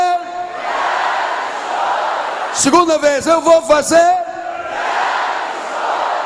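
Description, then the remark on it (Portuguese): A large crowd roars the Portuguese phrase "Eu vou fazer" ("I will do") together in unison, loud and sustained, then a single amplified voice speaks briefly before the crowd shouts in unison again. “Eu vou fazer mais alto, mais alto. Grite conforme você grita para o Flamengo.”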